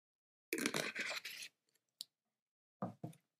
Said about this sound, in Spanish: Y mira, voy a dar un traguito de agua y continúo.